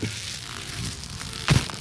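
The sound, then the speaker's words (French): A package being unwrapped: soft, steady rustling of packaging with a few faint crinkles, then a short, louder thump and crackle near the end. No one speaks. “Euh, on va prendre un moment de silence pour le, déballage.”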